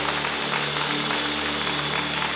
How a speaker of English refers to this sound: Can we give all of those who raised their hand a great clap of encouragement? So, so good.